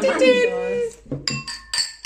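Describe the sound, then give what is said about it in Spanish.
A voice speaks briefly, then glasses of whisky clink together several times in quick succession, each bright ringing tap clear as in a toast. “Salud.”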